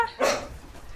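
A single sharp, excited bark from a rescue dog wearing a small vest with a red cross as it starts a search for a hidden person, then fades into a quiet background with no one speaking.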